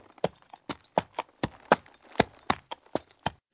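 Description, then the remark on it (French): Horse hooves clop along a hard road in a steady, uneven trot, pulling a carriage; about a dozen crisp hoofbeats, moderately loud, with no voices. “Au même instant, elle entendit des sabots de chevaux qui tiraient une voiture.”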